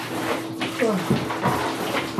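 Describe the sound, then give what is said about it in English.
Shower water runs in a steady hiss throughout as a person washes during a timed shower of about 30 seconds, with buckets on the ground collecting the water, and a voice speaking briefly over the spray. “I am, um, well, in the in the shower.”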